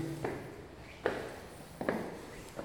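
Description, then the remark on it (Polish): Three footsteps climbing stairs, the last stretch of a walk back to a hall, evenly spaced and fairly quiet, each a soft thud with a scuffing edge, against a low background hum with no talking. “Ok, teraz już wchodzimy, proszę Państwa, na schody i to jest ostatni odcinek.”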